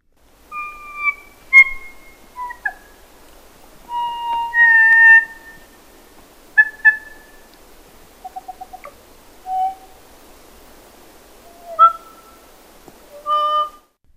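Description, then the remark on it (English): Slow, haunting kōkako song: long, pure, organ-like notes sliding between pitches, delivered in unhurried phrases separated by pauses, clear with no talking. “okay, and here's the Coca Cola.”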